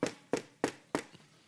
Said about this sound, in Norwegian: Og Så kommer de til Jerusalem, og så banker de på døren til, til kong Herodes. Altså kongen i landet Israel. Så banker de på døren til han.